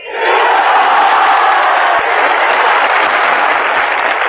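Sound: crowd applause and cheering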